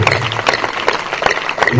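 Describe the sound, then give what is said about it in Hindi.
An audience claps for Jesus, a dense, steady patter of many hands that stays loud throughout, with some voices mixed in underneath. “हाँ यीशु के लिए तालियां बजाएं”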